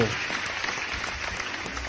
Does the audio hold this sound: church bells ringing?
no